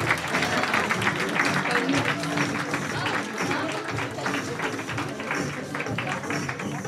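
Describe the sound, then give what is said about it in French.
Sustained applause from an audience after a student fashion show presenting outfits for the Jump Couture international competition, for assistants putting the summer version of the sea-foam dress on a model, a dense steady patter of many hands clapping at an even loudness for several seconds, with faint voices mixed into the crowd noise. “Ça a dû demander beaucoup, beaucoup de travail, On peut les applaudir encore bien fort.”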